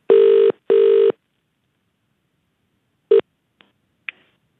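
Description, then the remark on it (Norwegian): A telephone call to Queens Park Rangers rings out twice in steady electronic bursts, then the line clicks as the call is picked up, with a few short clunks of handset noise and no talking. “Vi ringte iallfall til Queens Park Rangers for å høre om ja, hvor det har blitt av han fyren her.”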